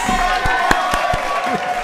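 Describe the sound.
Applause with cheering: a dense wash of clapping punctuated by a few sharp, louder claps, with high whooping voices sustained across the whole couple of seconds.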